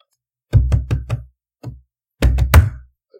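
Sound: knocking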